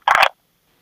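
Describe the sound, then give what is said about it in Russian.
A single short, buzzy telephone beep, loud, the line tone after the other party hung up on a phone call, followed by silence. “Да, бросил трубку. Бросил трубку. Звоним повторно.”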